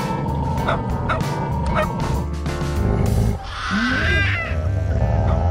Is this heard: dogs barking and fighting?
yes